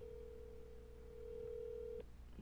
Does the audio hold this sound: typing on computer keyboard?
no